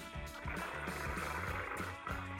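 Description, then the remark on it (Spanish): A voice imitates the normal sound of a car engine running, as opposed to the noise of a faulty timing chain, a steady low rumbling drone with a regular chugging pulse about twice a second, fairly loud throughout. “O sea, que imaginemos que el ruido normal es...”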